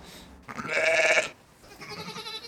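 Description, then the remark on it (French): A single ewe bleats loudly, a wavering cry of about three-quarters of a second, followed by quieter outdoor background with faint rustling. “Ben, les brebis, euh, là, il y en a une qui a deux ans, l'autre trois ans, et la première a dix ans.”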